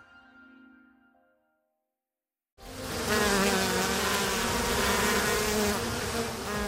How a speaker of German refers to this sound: Puh, nicht davonlaufen. So klingt ein Bienenvolk, wenn es ausschwärmt. Ganz schön was los.